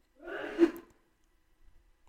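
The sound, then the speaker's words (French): A single sneeze: a brief breathy intake that bursts into a sharp, explosive release, followed by near silence with only faint rustling. “Je suis désolée si entends éternuer.”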